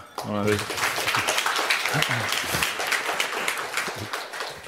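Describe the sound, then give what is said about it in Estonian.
An audience at a course's closing session claps steadily to welcome a guest speaker, a dense wash of many hands that fills the whole moment at moderate loudness, with a voice briefly speaking over the start and a few vocal sounds mixed in. “suur aplaus talle.”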